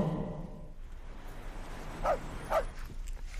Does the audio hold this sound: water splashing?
no